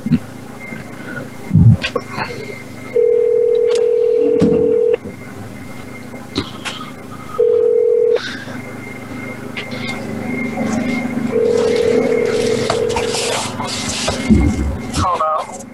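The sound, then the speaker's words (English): Telephone ringback tones sound through a handset while calling a woman and waiting for her to answer: three steady buzzing rings separated by pauses, with faint background noise and some low murmuring between them. “she's ringing.”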